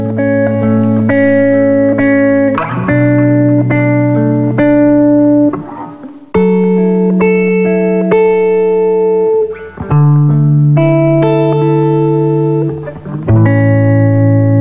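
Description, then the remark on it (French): A cover song plays loudly: sustained, slightly buzzy keyboard chords shift every couple of seconds in a slow progression, with no voices or singing. “On va écouter une petite chanson”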